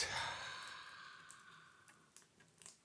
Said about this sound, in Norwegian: Ja, det, det, er jo mange som ikke vil skjønne heller den pustinga der, nei. som du vanligvis gjør. Det er jo, det er jo den nyhetsoppleserpustet som ja. jeg har, må jeg få si det sjøl, perfeksjonert.